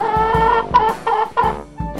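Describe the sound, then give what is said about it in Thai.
A rooster kept by a villager at the edge of a village clucks repeatedly, a series of short, nasal calls in an uneven rhythm, fairly loud with no talking. “บ้านที่ยังอุดมสมบูรณ์แห่งหนึ่ง มีชาวบ้านเลี้ยงไก่โต้งไว้ตัวหนึ่ง”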